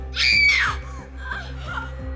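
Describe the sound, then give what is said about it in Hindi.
A woman lets out a loud, high-pitched terrified scream lasting about half a second, followed by a low rumbling drone with faint, eerie tonal sounds in the background. “उसने जैसी आंखें खोली तो रागिनी को देखकर वो चीख पड़ी”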